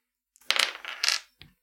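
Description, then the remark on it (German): Dice rolled in a tabletop game, including one extra die, clatter and tumble across a hard tabletop in a quick burst of clicks, settling after about a second, followed by one last small tap. Fairly clear, with no talking. “Ja, ähm, gib mal einen Würfelwurf.”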